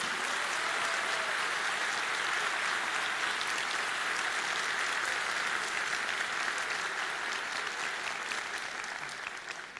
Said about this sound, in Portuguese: Eu queria pedir a vocês mais uma salva de palmas para essas pessoas que nos fazem nos inspirar todos os dias.